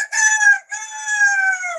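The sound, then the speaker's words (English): A woman imitates a rooster's crow, a loud, drawn-out two-part call with a brief break in the middle, convincing enough to pass for the real bird. “I've got, uh, yeah, my, my favourite noise in the world is my girlfriend's rooster impression, and it sounds like this.”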